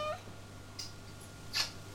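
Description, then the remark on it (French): A cat gives two short, high-pitched mews about a second apart, fairly faint and thin, over a quiet background with a steady low electrical hum. “Choupette, choupette. Viens le chat, viens.”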